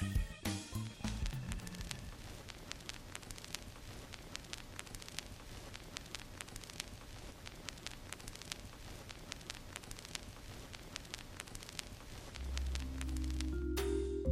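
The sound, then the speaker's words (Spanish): Steady vinyl record surface noise during playback: a soft continuous hiss dotted with irregular crackles and pops, quiet, with a low rumble swelling near the end and no voices. “ese pequeño siseo, ese pequeño, eh, no sé, ese sonido parece que nos atrapa, que nos encierra en un mundo nuevo pero análogo a la vez.”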